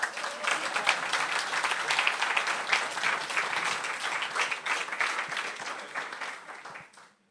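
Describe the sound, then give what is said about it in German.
An audience applauds the speaker's wife steadily for several seconds, a dense wash of many hands clapping at a fairly even level before it tapers off at the very end. “Können wir ihr mal klatschen?”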